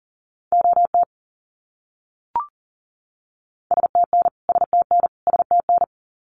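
Rapid Morse code beeps at 40 words per minute, sending abbreviations each repeated three times, in a steady mid-pitched tone: one quick burst of dots and dashes, a brief click, then three fast groups sent back to back. No voices.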